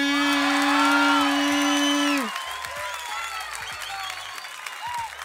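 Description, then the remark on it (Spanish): A large crowd at a rap battle claps and cheers loudly for Trueno, with scattered whoops. A sustained horn-like tone sounds over the first two seconds, then cuts off, leaving dense, steady applause. “Un fuerte aplauso para Trueno también.”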